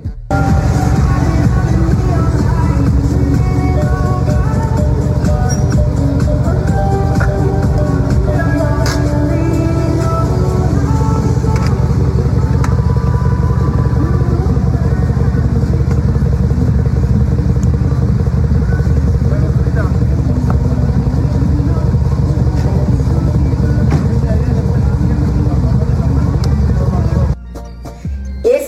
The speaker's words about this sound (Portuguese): Olha como ele chegou com seu Uno retrô arrasando no treino.